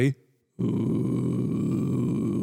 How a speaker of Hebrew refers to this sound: בתדר הזה שנקרא ווקל פריי, נדבר על זה בהזדמנות.